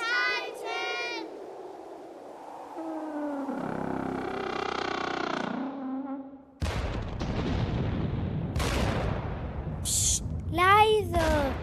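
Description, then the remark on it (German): Wavering whistling tones give way to sudden loud booms and a continuous rumble, with sharp crackling bursts and a falling whistle near the end, like bombs exploding in a war zone, set in World War II in 1944 among destroyed houses. “Aber was sind das hier für Geräusche? Bomben? Ist hier Krieg?”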